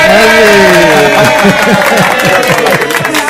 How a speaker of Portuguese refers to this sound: Maravilha, cadê as palmas? Muito bom.